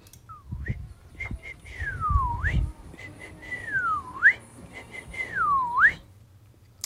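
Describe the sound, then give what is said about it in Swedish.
A person whistles an imitation of an unidentified bird call heard in early May in Västanfjärd: three clear, swooping notes that dip down and rise sharply again, separated by short chirpy pips, with some low background rumble. “men visslade genast in lätet efteråt.”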